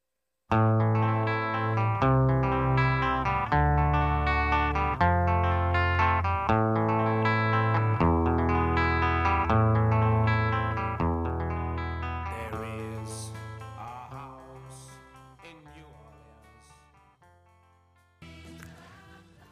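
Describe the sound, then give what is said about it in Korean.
Pop music with steady, rhythmic chords plays loudly on a radio show, then gradually fades over several seconds before a second, listener-requested song briefly starts near the end. No one speaks. “두곡 이어서 들려드렸습니다.”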